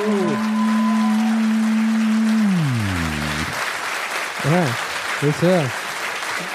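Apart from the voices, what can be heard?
audience applause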